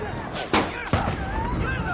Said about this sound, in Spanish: Wolf dispara a las ruedas del coche.